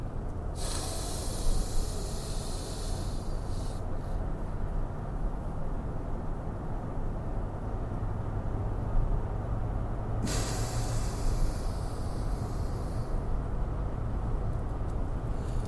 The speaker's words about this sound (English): And breathe in through the nose.